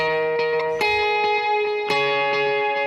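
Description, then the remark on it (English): A clean electric guitar riff rings out with a pronounced delay effect, each plucked note repeating in echoing trails that blend into a shimmering, sustained wash. No one speaks. “But he adds that delay, and it's and it's uh, and all of a sudden you get.”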